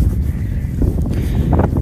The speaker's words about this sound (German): Ah ja, falls es vielleicht ein bisschen windig sein könnte, wir sind gerade spazieren. Der Kleine und ich, den Kleinen habe ich auf dem Rücken in der Trage und ich genieße die Aussicht.